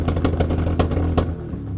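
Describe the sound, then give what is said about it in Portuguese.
A loud motorcycle engine roars outside with a deep, throbbing rumble and rhythmic revving bursts, then eases off slightly as it carries on. No one speaks. “Eu não sei se vocês estão a ouvir, mas estou a ver aqui um filho de uma ganda puta aqui com, com uma moto.”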